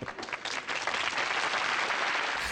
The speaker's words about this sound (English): This is where I'm going to insert the Facts of Life clap track.